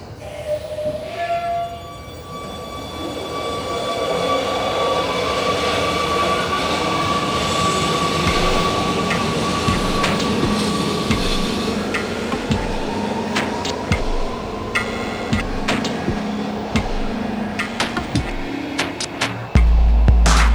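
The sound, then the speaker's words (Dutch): An Amsterdam metro train, line 52 toward Noord, rumbles steadily along the rails, with high metallic squeals and whines from the wheels and occasional sharp clacks over track joints, for the whole stretch. “Eerstvolgende metro is lijn 52, richting Noord.”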